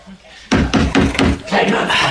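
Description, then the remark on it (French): Loud, rapid pounding on a wooden door in a black-and-white film scene, about half a dozen heavy knocks in quick succession, with raised voices shouting in French for the door to be opened over the banging. “allez, ouvre nous Ouvre la porte”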